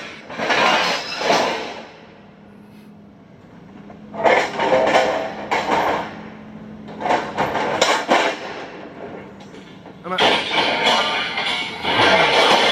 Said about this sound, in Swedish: Alltså, han, han, använder en skotare och tar upp typ tio stycken bitar av järnväg och så tappar han några.